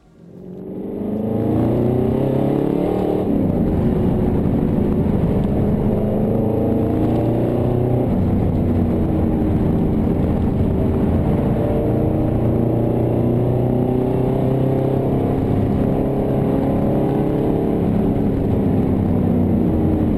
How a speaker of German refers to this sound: AMG 6 Liter V8, also dem originalen M117 AMG 4-Ventiler von Erhard Melcher, wie dieses Auto auf der Nordschleife klingt, das hören wir uns jetzt mal an.